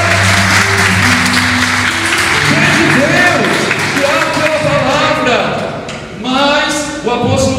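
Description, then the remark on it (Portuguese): A church audience applauds God loudly and steadily for several seconds, a dense wash of clapping with voices calling out over it and a low sustained tone underneath. “Dá um aplauso ao Deus nessa hora.”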